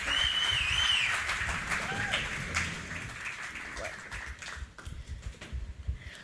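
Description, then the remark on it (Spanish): An audience applauds the day's featured guests in a dense, steady patter of clapping that gradually thins out, with a few whistles and cheers at the start and scattered voices underneath. “Así que un gran aplauso a mis estrellas de hoy.”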